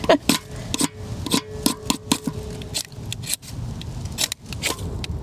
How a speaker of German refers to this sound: Wesentlich leichter wurde es dann mit einer Kombination aus Feuerstahl und Taschenmesser.